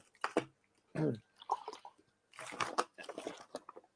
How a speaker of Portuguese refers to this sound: Perdão, pessoal, beber um gole d'água aqui.